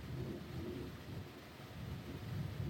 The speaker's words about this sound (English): That sound like an airplane or something. Oh, that uh, excuse the airplane.